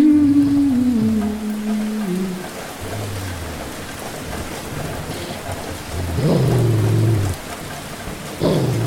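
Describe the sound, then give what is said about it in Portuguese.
Steady rainfall hisses throughout, played through headphones during a tabletop game, mixed with deep thunder-like rumbles and a few low, drawn-out moaning tones that rise and fall over the downpour. “o pessoal continuou jogando, e aí no headphone estava rolando barulho de chuva, que ele tinha descrito, a cantoria da mulher fazendo o ritual, que eu tinha escrito, e o rosnado do lobo que me atacava no final da visão.”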